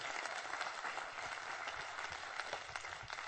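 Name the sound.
audience clapping hands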